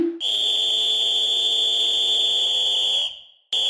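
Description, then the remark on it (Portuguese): A referee's whistle gives one long, piercing, steady blast lasting about three seconds at the start of a match, tapering off at the end before a second blast abruptly begins. No voices are heard. “Apito árbitro!”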